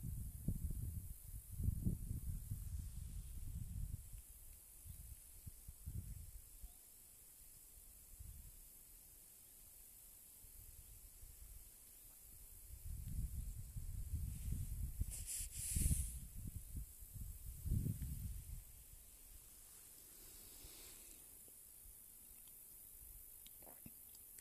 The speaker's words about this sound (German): Es ist still. Fast. Hörst du das Zirpen der Grillen? Den Wind?